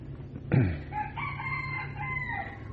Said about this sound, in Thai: ไก่เนี่ย มันเป็นตัวอย่าง ในการซื่อตรงต่อเวลาพอตีสองต้องขัน ไม่มีไก่ขี้เศร้านอนจนลืมขันนี่ไม่ไม่เคยเห็นมันซื่อตรงกับเวลา